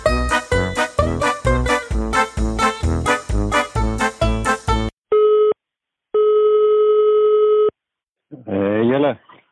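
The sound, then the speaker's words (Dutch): A rapid run of electronic tone pulses gives way to a phone's ringing tone, one short burst then a long steady ring, before a voice briefly answers: a phone call to a Dutch footballer playing in the Czech Republic. “Uh, ik heb, ja, voordat we dit opnamen, nog wel even met hem gebeld.”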